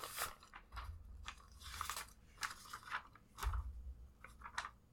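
A sheet of paper with a movie's letter score written on it being unfolded, with a run of crisp, irregular crinkles and rustles, some sharper snaps among softer crackling, all moderately quiet with no talking.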